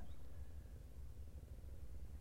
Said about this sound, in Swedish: Du kanske hör lite ljud i bakgrunden. En segelbåt som puttrar förbi